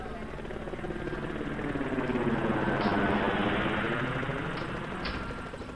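An orthopter, one of two, sits landed about ten metres away with its turbines running: a dense, steady roar with a rapid rhythmic rotor chop and faint high whine, swelling slightly in the middle before easing off.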